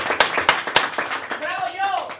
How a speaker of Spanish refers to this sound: Un aplauso. ¡Bravo!